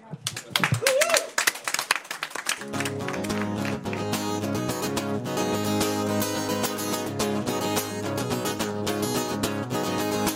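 A short burst of audience applause, dense clapping with a brief whoop, lasting a couple of seconds before a steady band track starts and carries on loudly.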